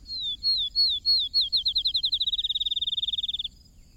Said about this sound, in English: Some of the sparrows still sing,